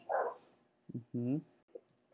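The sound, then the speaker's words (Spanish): A dog lets out a few short, uneven barks, one drawn-out and yelpy, with brief quiet gaps between them. “Este, es que mi perro se calla, a ver, espérame.”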